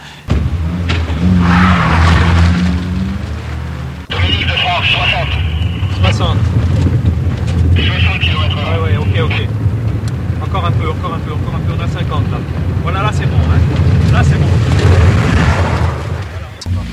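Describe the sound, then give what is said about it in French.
Several security cars rush in at once, engines roaring loudly and tyres skidding, arriving to load the president into his car while other security vehicles form a protective shield. A dense continuous din lasts the whole time, with indistinct voices buried underneath. “arrivée des voitures immédiatement, en simultané, chargement du président dans la voiture, dans sa voiture.”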